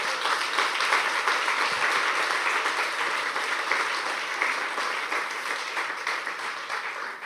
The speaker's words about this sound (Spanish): Démosle un aplauso a nuestro amado Salvador.